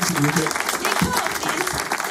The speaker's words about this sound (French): On les applaudit bien.